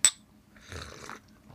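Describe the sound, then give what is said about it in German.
A single bright clink of glasses touching in a toast before drinking, with a short high ringing tone, followed by quieter handling and shuffling noises. “Einmal anstoßen,”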